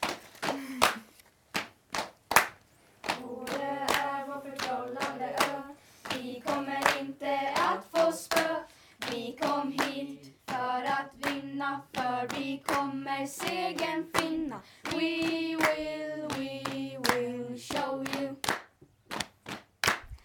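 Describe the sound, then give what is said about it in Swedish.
A quiz audience applauds with steady, dense clapping, mixed with sustained tonal cheering or chanting voices, carrying on for about twenty seconds with a few brief dips. “En applåd, hörni.”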